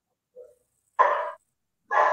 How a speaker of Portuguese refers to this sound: Os cachorros estão latindo aqui.